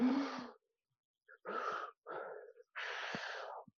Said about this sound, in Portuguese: eu vou lá, faço assim, ó. Eu entro num lugar que eu não conheço, eu faço, eu faço uma hiperventilação.